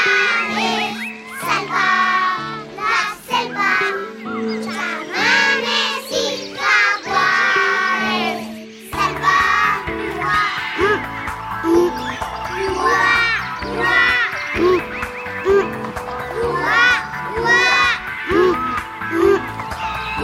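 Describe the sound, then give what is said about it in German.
A children's group linked to the Amazon rainforest, recorded by a Colombian music group, chanting and singing together in a lively, overlapping way, voices bright and high, with a steady rhythmic pulse underneath and occasional shouts. “Da sprechen wir gleich noch ausführlicher drüber, aber hören jetzt noch mal die beiden anderen Gesänge, die Sie mitgebracht haben.”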